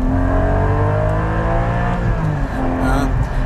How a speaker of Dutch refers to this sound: Want de Cayman GT4 heeft namelijk een party trick. En je hoort het misschien al wel. Hij maakt lekker veel herrie